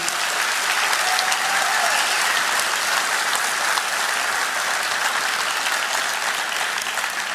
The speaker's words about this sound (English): I, I want to hear more stories, but we're going we're gonna stop here for a second. Let's give him a hand for coming up here and sharing.